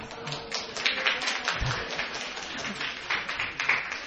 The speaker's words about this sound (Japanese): これで拍手が起きちゃうんですね。